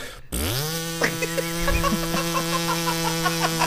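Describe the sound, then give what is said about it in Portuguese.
A voice imitates a vibrator at its fifth, highest level, sounding like a lawn mower engine with a steady, buzzing drone that revs up quickly, then holds a rough, sputtering hum for several seconds. “Parece o cortador de grama.”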